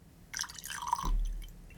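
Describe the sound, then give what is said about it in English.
A short splash of high-proof rye whiskey, made from 65% rye, 20% malted barley and 15% corn, being poured into a glass, with bright trickling and a faint clink, heard for about a second and then settling into quiet. “So I'm really excited to see how this presents itself at this high proof. Let's go and get it poured”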